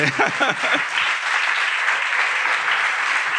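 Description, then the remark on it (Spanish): An audience applauds with dense, steady clapping that holds at an even level for a few seconds, while a voice briefly speaks over it at the start. “Yo creo que te has merecido un aplauso al hijo de buscar presente.”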